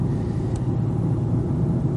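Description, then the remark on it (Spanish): Steady low engine rumble fills a moving car's cabin, a constant deep drone with road hum and no voices, holding an even loudness throughout. “No he escuchado ningún podcast que se grabe en un coche.”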